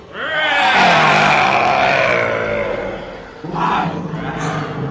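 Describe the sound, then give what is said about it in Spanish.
A voice imitates the deep, rumbling roar of approaching tigers, a loud sustained growl of about three seconds that slowly fades, followed by a shorter, rougher burst. “Apenas acabó el hombre de escribir, el monte entero tembló con un sordo rugido.”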